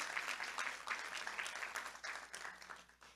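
Steady applause from an audience, a dense wash of many hands clapping that holds for a few seconds at a moderate, slightly distant level, easing a little toward the end.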